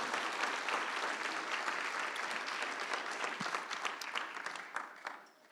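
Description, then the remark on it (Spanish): An audience claps steadily in praise of God during a sermon, a dense wash of many overlapping hand claps at an even loudness that tapers off at the very end. No one speaks over it. “Dele un aplauso al rey, diga gloria a Dios, mi hermano.”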